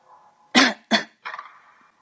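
A soft cough in two quick, raspy bursts, followed by a fainter, breathy trailing exhale. No one speaks; otherwise near-silent.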